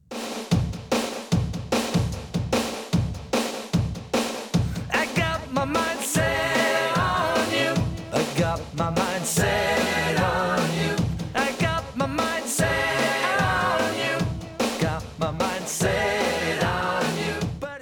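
A pop song plays loud and close, opening on a punchy, steady drum beat before the full band kicks in after a few seconds with a bright, dense, driving arrangement.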